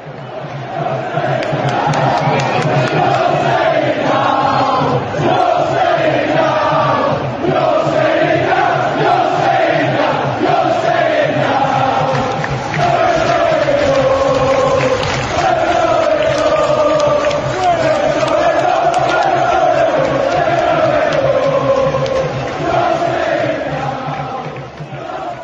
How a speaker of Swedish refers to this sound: Vi kan väl lyssna på vad eh, Sheffield Wednesday-fansen sjöng helt enkelt.